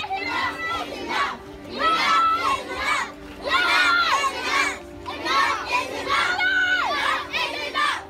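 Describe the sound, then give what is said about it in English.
A crowd of children chants loudly in unison at a children's march during July protests and demonstrations, their high voices rising in repeated rhythmic bursts every second or so. “There was a children's march.”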